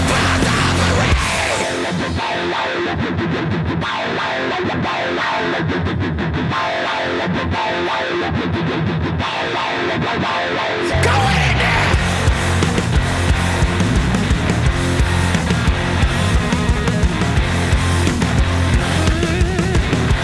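A cover song of heavy rap-rock music, performed for the Australian radio station Triple J, with a thick, distorted electric guitar; a sparser, choppy opening gives way about halfway through to a loud, dense full-band section, with no voices heard.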